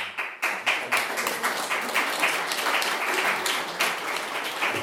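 An audience applauds steadily after a guest speaker is thanked for coming, many hands clapping in a dense, continuous patter at an even, fairly loud level throughout, with no voices standing out.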